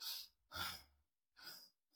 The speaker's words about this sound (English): I'm breathing like this. I'm breathing completely wrong.